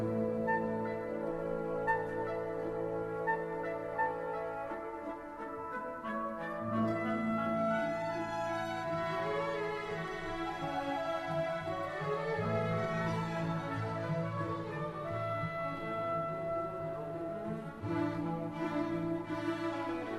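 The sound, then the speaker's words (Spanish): Late-Romantic orchestral music by Mahler plays on its own: lush, sustained string and wind harmonies that swell and shift slowly, holding a steady, full volume throughout with no voices. “Estamos escuchando una pieza de, Mahler de enorme belleza, no es casualidad escuchar evidentemente a este, a este autor, a este compositor”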